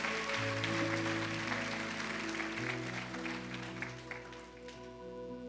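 A church audience, rising to its feet, applauds the Lord steadily for several seconds, a dense wash of clapping layered over sustained organ or keyboard chords that shift beneath it, all fairly loud and continuous.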